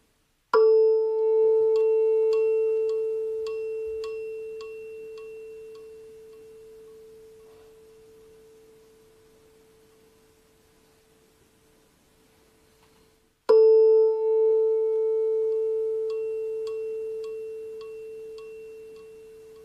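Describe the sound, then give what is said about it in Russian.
A steady, pure tuning fork tone rings out in a demonstration with two tuning forks: when the right fork is struck, the left one also begins to sound. The tone fades slowly over about thirteen seconds before a fresh strike sets it humming loudly again, with faint metallic overtones ticking above the hum. “При возбуждении правого камертона левый также начинает звучать.”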